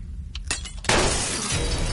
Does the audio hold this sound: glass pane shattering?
yes